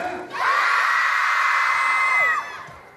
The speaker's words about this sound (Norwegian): Og det er en film som eh, får fram både hyl og tårer hos jentene i salen. Er dere klare?